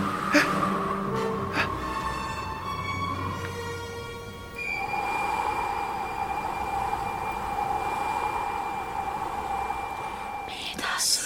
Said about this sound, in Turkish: Aman sazlar canım sazlar. Yalancı çıkartmayın bizi. Yel şiddetleniyor. Dinle.